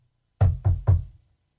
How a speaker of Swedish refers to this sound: Vad som fick mig att knacka i det här bordet